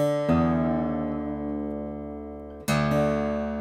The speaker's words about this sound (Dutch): Namelijk in een drop D stemming. Dat betekent dat we de lage E-snaar een hele toon omlaag stemmen. Normaal is dit. Normaal is het gewoon een E, hè? Die gaan we omlaag stemmen.